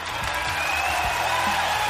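A short burst of applause from a small group welcoming a cycling guest, dense and steady clapping that holds at an even loudness for a couple of seconds, with a faint low murmur underneath.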